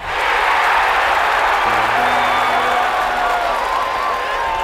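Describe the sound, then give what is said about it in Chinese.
A large crowd roars and cheers in victory in a steady, loud wall of sound, with scattered whoops and applause running through it and a brief low horn-like tone in the middle. “我听见孩子的笑声，女人的哭泣，男人的愤怒，开心的雀跃，胜利的欢呼。”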